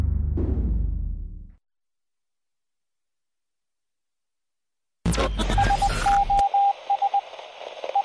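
Morse code beeping played on The Alex Jones Show: a high, steady tone keys on and off in short and long pulses over loud hissing radio static. It follows a brief low rumble and several seconds of silence.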